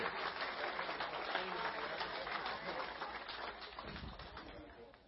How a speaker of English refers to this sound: Now, you ordinary, normal people, would you give these folks a round of applause for thanking them to come up?